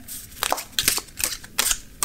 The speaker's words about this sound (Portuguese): Então vamos baralhar as cartas, né?